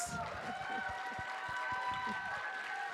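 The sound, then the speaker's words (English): An audience at Golden Con applauds the queer people in the room, a dense, even wash of many hands clapping at a constant loudness for about three seconds, with some raised voices cheering along. “A lot of queers in this room right now. Round of applause.”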